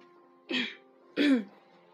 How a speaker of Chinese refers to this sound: 你清清嗓子是什么意思啊？我感冒，你又没感冒。